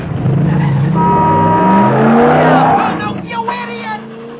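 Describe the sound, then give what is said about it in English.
A car engine revs up loudly, its pitch climbing steadily for a couple of seconds before the roar fades as the vehicle pulls away. “You know, that's the greatest car I ever saw.”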